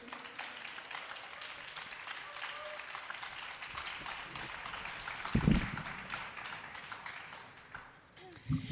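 Steady applause from an audience at a semifinal as performers come onto the stage, a dense wash of many hands clapping that holds for several seconds, with a louder burst of cheering or a shout partway through.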